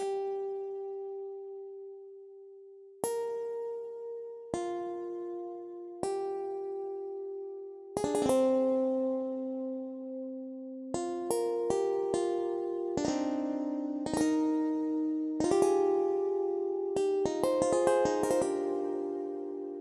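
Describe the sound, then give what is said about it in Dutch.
A harp-like instrument of iron wires that stick up and are touched with the fingers rings out, each wire giving a different tone; its maker calls these Sonic Creatures. First slow single resonant notes, then quicker overlapping tones that shimmer and sustain. The playing is clear, with no voices. “En dan heeft ze ook nog een harp variant op en die klinkt zo.”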